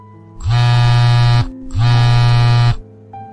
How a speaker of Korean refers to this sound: B군의 전화 내용에 놀란 모두가 황급히 방에서 나오고 있는데 그때 울리는 A군의 전화.